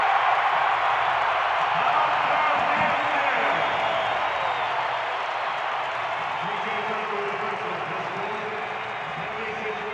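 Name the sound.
arena crowd cheering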